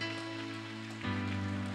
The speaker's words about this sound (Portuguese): Você pode dar um aplauso ao Senhor, receba isso.